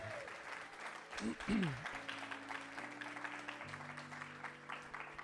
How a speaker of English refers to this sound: Can you, can you give the Lord a strong hand clap this morning?